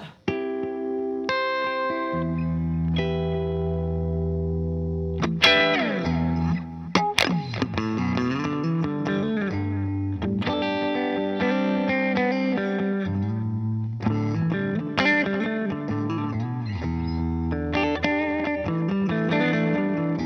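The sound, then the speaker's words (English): Electric guitar plays a series of sustained triads, three-note chords with heavy effects, ringing and shimmering with a thick, processed tone, shifting every couple of seconds over a steady, full sound with no voices. “Okay, there are these things. They're called triads, it's not important. Listen to this.”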